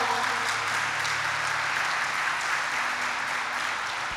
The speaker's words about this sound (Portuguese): Pode aplaudir o Senhor.